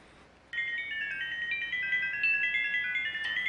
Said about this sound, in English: This is scientific data converted into sound and is mapped in pitch. The process is called sonification. So listening to this brought something to the ear besides the obvious burst.